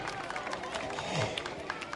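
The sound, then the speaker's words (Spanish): A crowd claps steadily for the Club Olímpico Constitución at an event in Plaza de Armas, a dense, crackling wash of many hands with scattered sharper claps standing out, holding an even moderate loudness for the full two seconds. “Sí, fuerte el aplauso para el Club Olímpico Constitución.”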